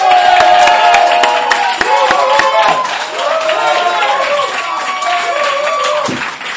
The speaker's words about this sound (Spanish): Por favor, un aplauso para Antonio Castelo.